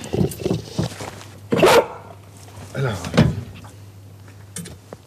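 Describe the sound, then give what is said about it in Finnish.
The hatch of a dog trailer built for four dogs and their gear rattles and clunks open, and a female Labrador Retriever scrambles out with brief shuffling and a soft vocal sound, over a steady low engine-like hum. “No tää on tämmönen koirapenäkärri, missä on niin kuin neljälle koiralle ja varusteille tämmönen tilaaja. täältä se tulee.”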